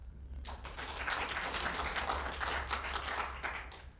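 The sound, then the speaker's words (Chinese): A sudden burst of hand clapping by the prince consort (fuma), applauding at a singer's request before a hometown folk tune: many quick, overlapping claps that form a steady, fairly loud patter for about three and a half seconds before tapering off, with no talking. “这驸马爷夸夸夸一鼓掌，小白龙来精神了。”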